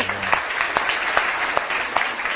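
Audience applause, a steady crackling wash of many hands clapping with a few sharper claps standing out at irregular moments, fairly loud and continuous throughout with no one speaking.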